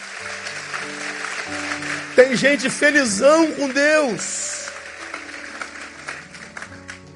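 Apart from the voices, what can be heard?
audience applauding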